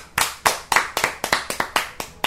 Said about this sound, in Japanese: そこでなんと上田瑠唯君はですね世界一になったんです金メダルですよ世界一ですすごいですねそれはとてもとてもとてもとてもすごい拍手です